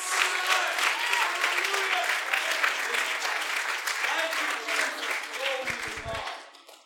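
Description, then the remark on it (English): A church audience claps steadily for several seconds, a dense wash of hand claps that fades out near the end, with murmured voices mixed underneath. “Come on, if you believe that, clap your hands with me today.”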